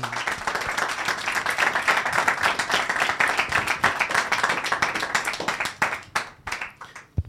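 An audience applauds steadily for several seconds, a dense wash of many hands clapping that thins into a few scattered, sharper claps before stopping.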